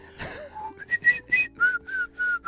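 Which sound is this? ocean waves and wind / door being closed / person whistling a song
person whistling a song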